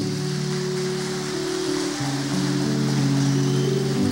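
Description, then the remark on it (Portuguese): An audience applauds the call of God in a dense, steady wash of clapping that lasts throughout, with sustained low keyboard chords humming beneath it and no voices. “Pode aplaudir o chamado de Deus.”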